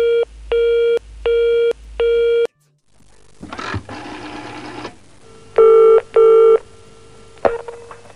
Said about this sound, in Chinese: 刚才电话断了啊，我们重新连线。